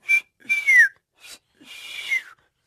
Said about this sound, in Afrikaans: Mat, nou dat … dit reg gekry het om te fluit, is dit tyd vir ons om 'n bietjie uit te gaan tuin toe en voeltjies te gaan roep.